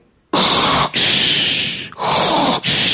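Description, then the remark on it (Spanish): A voice imitates a hospital artificial respiration machine with loud, breathy hissing pushes, about four in a row with brief gaps between them, and no talking. “Mi abuelo vivía en un hospital conectado a una máquina de respiración artificial.”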